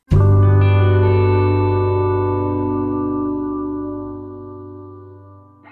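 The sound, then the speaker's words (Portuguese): A short musical transition: one rich, effects-laden chord rings out and slowly fades over several seconds, with no voices. “Uma musiquinha só de transição entre essas duas partes do episódio, mas foi uma loucura real.”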